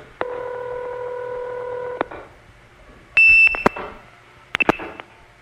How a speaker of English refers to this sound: That's the supervision handshake, off hook, on hook.